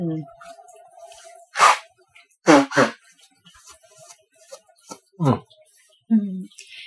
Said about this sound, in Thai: ขอสั่งขี้มูกทีนงได้ปะ